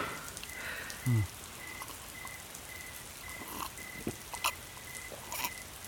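Steady rain hisses throughout, with scattered drips and patters. A thin, high chirp repeats at an even pace over it, and a single soft low thump comes early on. No voices.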